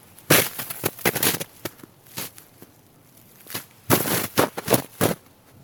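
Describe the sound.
Irregular footsteps of a person imitating a wild animal's walk crunch on dry ground in short bursts of two or three steps, then pause before starting again, like a squirrel, fox or raccoon picking its way along. Fairly loud, with no talking.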